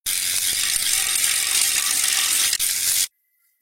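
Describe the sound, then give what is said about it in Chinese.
A spinning bicycle wheel ratchets with rapid clicks that merge into a bright, steady buzzing rattle for about three seconds, in a teacher's pitch experiment where faster turning gives a higher pitch. It hitches briefly near the end, then cuts off abruptly. No one speaks. “如果你觉得自行车的声音高低还不明显”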